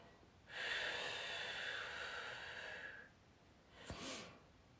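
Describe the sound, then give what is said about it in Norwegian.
A voice imitates the constant hissing of tinnitus, a steady rush like air pushed through the teeth, held for about two and a half seconds, followed by a short breathy intake. No words are spoken. “Altså, i mitt hode så suser det, for jeg har jo øresus, og jeg hører konstant sånn her”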